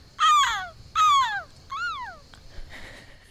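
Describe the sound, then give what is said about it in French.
A female foley performer imitates a seagull with three loud squawking cries, each sliding downward in pitch, the last one a bit softer, followed by a brief quiet pause. “c'est une mouette, ça Oui, exactement.”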